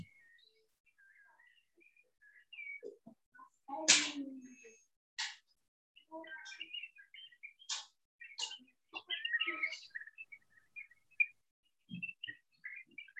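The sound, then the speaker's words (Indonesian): A bird calls repeatedly in short chirps and trills, mixed with a few sharp clicks and knocks, moderately loud against an otherwise quiet background. “Kalau saudara penggemar burung, pernahkah saudara mendengar suara burung seperti ini?”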